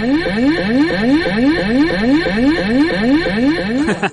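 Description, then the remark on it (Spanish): An electronic spoiler-warning alarm sound effect: a loud, rapidly repeating rising whoop, about a dozen sweeps at a steady pace, buzzy and echoing, with no talking, cutting off abruptly at the end. “Spoilers, ale, una alarma ahí bien.”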